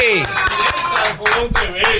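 A brief scattering of claps, loud and close, breaks out over a busy background of music and voices, the hand claps landing at an uneven, irregular pace.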